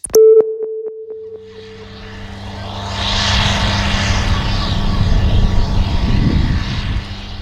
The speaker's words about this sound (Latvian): Uz atkritumu kalna Getliņu poligonā traktors šķūrē sadzīves atkritumus, kurus vairs nevar tālāk pārstrādāt. Traktoris ik pa laikam gaisā izšāva raķetes, lai izkliedētu milzīgu kāju baru virs izgāstuves.